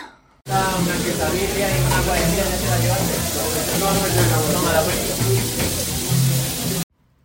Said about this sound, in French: Ce que vous venez d'entendre, c'est pas la symphonie du paradis, mais ça y ressemble. C'est le bruit de l'ambiance qui règne dans une taqueria, ces petits restaurants qui servent des tacos.